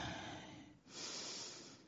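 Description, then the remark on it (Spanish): A loud, deep breath drawn in through the nose during meditation, a long airy rush that pauses briefly before a second sustained stretch of breathing; no one speaks. “Ay, es deliciosa respiración.”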